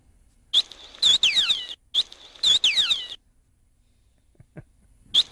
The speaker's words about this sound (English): A whale? Hallelujah. Hallelujah. Is it not a it's a whale, but it, I wanted to know what kind of whale.